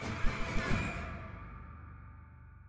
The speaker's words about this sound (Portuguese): E a chuva que se avizinhava para lhe fazer companhia.